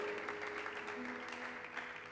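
An audience applauds the Lord in a steady, dense wash of clapping that holds at an even level throughout, with a faint sustained tone running beneath it.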